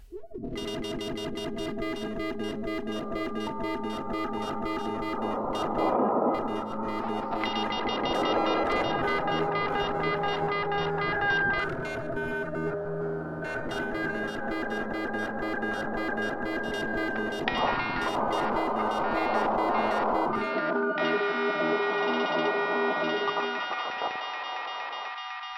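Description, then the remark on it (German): A dense, continuous wash of sustained tones drenched in echo and reverb, each sound smearing into long trailing repeats. It stays fairly loud and steady throughout, with no talking. “Echo und Hall.”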